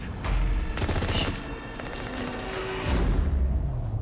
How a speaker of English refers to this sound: This is the same trailer, right? They've not done a new trailer. It's the same.